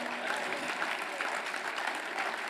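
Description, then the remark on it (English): A crowd claps steadily, many hands blending into a dense, even wash of applause that holds at a constant loudness throughout, with no talking over it. “You know, the, well, you can clap your hands.”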